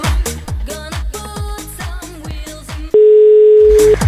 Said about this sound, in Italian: Bellissimo squillo. E non risponde questo.